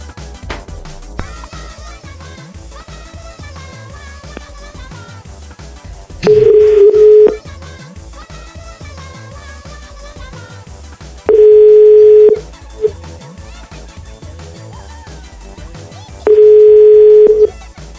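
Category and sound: signal or alarm, telephone ringing tone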